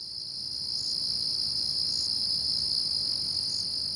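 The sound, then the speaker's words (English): A dense, continuous high-pitched trill of wood crickets chirping together at Wisley Garden, steady and unbroken throughout, with a faint low rumble beneath and no voices. “the wood crickets arrived with some plants from the New Forest, from a, a well-known nursery in the New Forest in the 1920s or 1930s”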